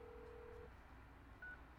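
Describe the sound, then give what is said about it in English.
A phone line rings on a call: a steady, low electronic tone holds for under a second, then falls silent, followed by a brief higher beep over faint background hiss. “Alright, mine's ringing.”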